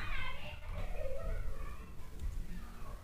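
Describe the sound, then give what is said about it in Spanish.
Children playing in the street shout and call out, a muffled, continuous jumble of play noise carried in from outside, fairly faint beneath a low background rumble. “Perdón por los gritos de la calle si es que llegan a escucharlos.”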